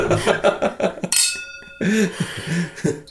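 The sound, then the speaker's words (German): Two wine glasses clink together in a toast, a bright chime that rings on briefly with a clear tone as voices chatter before and after. “Ein Stößchen.”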